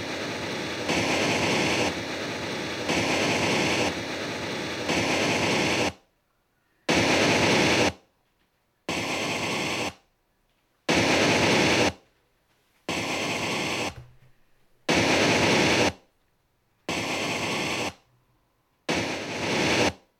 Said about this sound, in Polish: Teraz, tak jak wcześniej, słuchamy zestawu szumów.